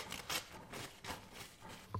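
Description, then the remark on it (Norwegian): Soft rustling and crinkling of paper being handled and crumpled in several quiet bursts, with no one speaking, as paper is taken for an egg-in-a-bottle air pressure experiment. “Da tar jeg litt eh, papir”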